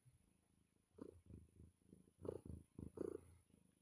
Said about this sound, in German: Schnurr, Schnurr, ne? Schnurr, Schnurr, ja.